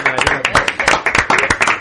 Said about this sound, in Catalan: un fort aplaudiment per la seva primera secció.